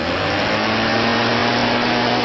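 A neighbor's leaf blower runs steadily, a loud, continuous whooshing roar with a low motor hum underneath. The sound stays even throughout with no pauses and no voices.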